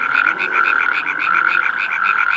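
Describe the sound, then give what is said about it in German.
A loud, continuous chorus of small toads, their rapid pulsing trills overlapping into one steady, ringing drone, with no voices present. “Also die wenigsten wissen, dass so eine kleine Kröte ja äh, so ein Spektakel machen kann.”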